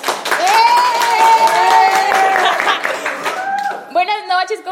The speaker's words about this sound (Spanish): unos aplausos por favor, y esta vez no son grabados.